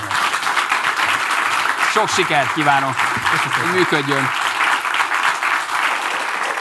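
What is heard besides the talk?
applause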